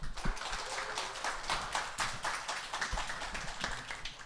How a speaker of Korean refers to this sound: 이제 작가님 모실 텐데요. 다 같이 박수 한번 쳐주세요.